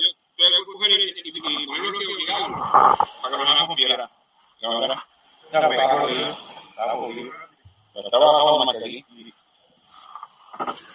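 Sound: young goat bleating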